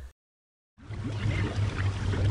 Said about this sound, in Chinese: 可是莎莎摇摇晃晃，一阵风吹来，它掌控不了飞行的方向，掉进了湖里，还溅起了一大堆水花。